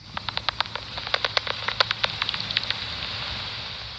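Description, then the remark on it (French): Bat echolocation calls played through an ultrasound detector: a rapid, irregular series of short, sharp clicks and ticks, crackling like morse code over a low steady hum. “On dirait qu'elle parle en morse.”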